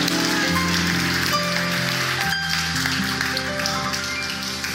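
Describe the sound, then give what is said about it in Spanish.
A crowd applauds loudly and steadily for Jesus Christ, a dense patter of clapping that holds its level for several seconds, with sustained musical tones running underneath. “Dale un aplauso fuerte a Jesucristo.”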